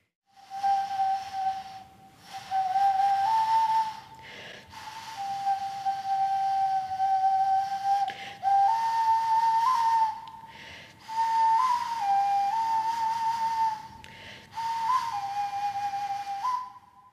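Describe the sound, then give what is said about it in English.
A traditional Māori instrument plays a soft, breathy, flute-like melody of long sustained notes with slight pitch bends, in phrases separated by short pauses, alone with no talking. “Um, so they've got like a really soft, sweet song that people have to really kind of tune in to hear, which in itself helps people to calm down and be peaceful.”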